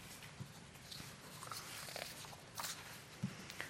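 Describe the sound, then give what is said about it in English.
Soft, scattered rustling of many Bible pages being turned to Romans chapter 8, with brief crisp flicks rising out of a quiet hush, fairly faint, with no one talking. “I like to hear Bible pages turning.”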